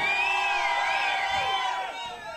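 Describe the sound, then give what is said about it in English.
A crowd cheers loudly and continuously for the Trans4mers after their performance, with high whoops and shouts rising over the roar for a couple of seconds before it begins to fade slightly. “For real, make some noise for the Trans4mers, man.”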